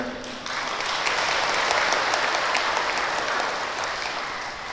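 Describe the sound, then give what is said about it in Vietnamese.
An audience of Buddhist followers bursts into steady applause, many hands clapping together in a dense, sustained patter that swells quickly after a brief quieter moment and holds for several seconds. “vỗ tay nó tạo ra cái hồ hể cái lạc quan cái cái diệt quyết”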